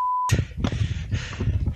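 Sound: censorship bleep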